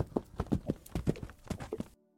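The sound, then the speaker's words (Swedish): Horse hooves clip-clop at a steady walking rhythm, clear, a dozen or so hoofbeats before the sound cuts off into near silence. The horses are pulling wagons loaded with felled trees out of a forest. “Men sen blev de lagda på vagnar och hästar drog dem bort ur skogen.”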